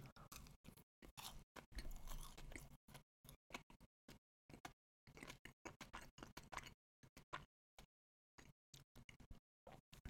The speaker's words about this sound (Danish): Men det, den smager bare sådan af, af sød marmelade, når man lige spiser den. Eller det gjorde den lige første gang her. Jeg prøver lige at tage en bid til.